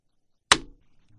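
A single sharp crack of a storyteller's wooden block (xingmu) slapped onto a table, as done before reciting an opening poem in Chinese storytelling, breaking a silence, then a quick decay into quiet with a faint low hum.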